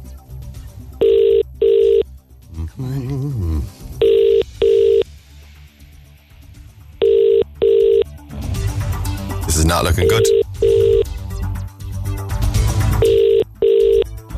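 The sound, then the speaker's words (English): A phone line rings out in repeated double-pulse tones about every three seconds as a radio host calls back a listener who texted in. It goes unanswered across several cycles, with people talking and some noisy bustle between the rings. “Oh, it's ringing.”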